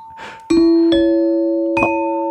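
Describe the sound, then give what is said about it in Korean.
A quiz-show chime signalling a partially correct answer rings out three bright bell-like notes, loud, each ringing on and overlapping the next, with a short breathy noise just before the first strike. “아 반동댕인가요? 네네 네, 반동댕.”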